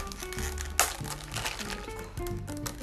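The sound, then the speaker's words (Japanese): Crackly crinkling as tape holding the side of a plastic, lunch-box-like case of testing equipment is peeled off with a fingernail, with a sharp snap near the start, then a steady rustle over a soft background hum. “脇がテープで止まっていたのでそれを爪で簡単に取れましたのでこれを外してケースを開けます”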